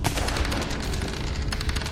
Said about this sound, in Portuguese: tá certo, você conseguiu dar um tiro, vai lá.